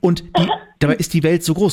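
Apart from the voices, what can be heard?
cough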